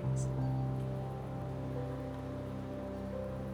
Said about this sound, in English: and let the falling rain wash down upon you tonight. Let it heal you. Let it soothe you.